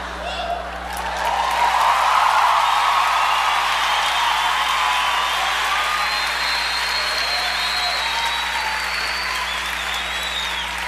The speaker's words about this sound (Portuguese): Você está aplaudindo.